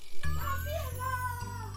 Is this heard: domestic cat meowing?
yes